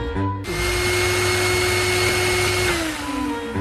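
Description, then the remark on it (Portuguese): An electric blender at home whirs on abruptly and runs at a steady, loud motor drone with a sustained whine, then starts to wind down near the end. No voices. “você pode ligar para mim e pro seu maridinho o liquidificador?”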